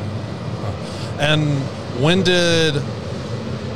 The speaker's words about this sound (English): Sorry about the train to all of our our listeners,